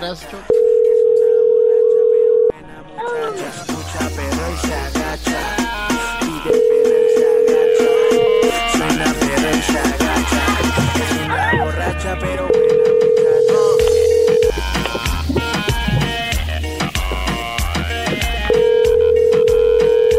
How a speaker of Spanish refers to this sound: Muy bien, se está marcando.